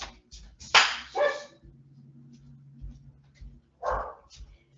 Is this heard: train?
no